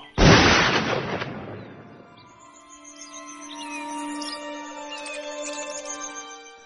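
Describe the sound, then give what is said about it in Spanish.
A single loud shot from a matchlock arquebus, fired in a jungle, cracks out, its booming report rolling away over about two seconds before birds chirp faintly in the quiet that follows. “Alzando mi arma con un único tiro, despaché la carga de un sonoro disparo.”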